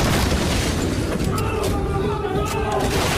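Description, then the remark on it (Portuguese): Police breaking down a door: a sustained, loud jumble of heavy booming blows and crashing noise lasting several seconds, with voices audible underneath the din. “Abra a porta para os policiais ou eles vão derrubá-la.”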